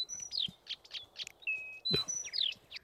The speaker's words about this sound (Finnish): Tätä luhtakertaisella on tyypillistä, että se niin kuin – laulaa välillä rauhallisesti